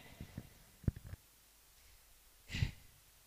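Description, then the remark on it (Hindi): A single short, breathy sneeze bursts out near the end, preceded by a few soft clicks and taps in an otherwise quiet setting. Nobody speaks. “God bless you”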